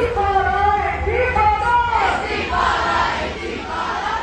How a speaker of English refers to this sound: The protesters were in a caravan of cars that circled the park, blaring music and honking their horns, while dozens of others chanted on the sidewalk and raised Palestinian flags.